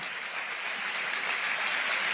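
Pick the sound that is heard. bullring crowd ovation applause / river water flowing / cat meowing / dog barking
bullring crowd ovation applause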